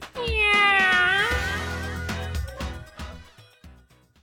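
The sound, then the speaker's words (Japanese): A single drawn-out cat meow, loud, rising then falling in pitch, followed by a short burst of lively music with a few sharp hits that trail off. “ハライチのにゃー猫になっちゃった”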